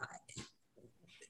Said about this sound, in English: Oh, that's the dog. The dog would like to add a few words here.